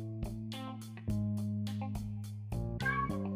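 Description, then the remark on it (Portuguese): The cat Clint lets out a long, unusually deep meow, loud, drawn out in several rough, groaning swells over a few seconds with no one talking. “Ele deu um miado muito grave aí tentando dar uma opinião.”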